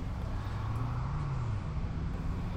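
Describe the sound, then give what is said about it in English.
Steady traffic rumble at an airport drop-off area, with a low engine hum that rises and falls as a vehicle idles or pulls past amid the constant background wash of a busy curb. “Um cuz we got yeah, here's some here's kind of that drop off sound”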